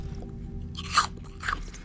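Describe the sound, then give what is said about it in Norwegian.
Two crisp, crunchy bites into a whole green apple, about half a second apart, the first slightly louder, over a low steady hum with no talking. “Så drar vi hjem, og Greta spiser et helt grønt eple.”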